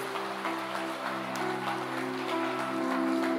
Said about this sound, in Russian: Дай огромные, огромные, огромные, огромные аплодисменты.